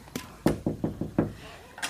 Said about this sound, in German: So kam er nach Hause und klopfte an die Türe.